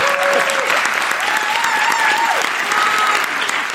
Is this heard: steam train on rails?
no